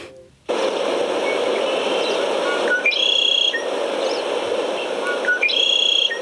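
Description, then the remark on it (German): A steady, hushed forest ambience fills the background while birds sing clear, high chirping phrases, with two brighter bursts of song standing out a few seconds apart. “Jetzt weniger ähm, mit Vögeln, wenn es mhm. geht.”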